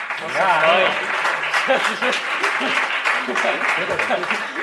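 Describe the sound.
An audience applauds steadily for several seconds, a dense wash of clapping that holds its level throughout, with voices calling out and talking over it.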